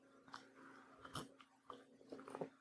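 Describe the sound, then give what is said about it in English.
Someone quietly sips hot coffee, a few short slurping and swallowing sounds spread over a couple of seconds, with no talking. “I had to get that sip of coffee.”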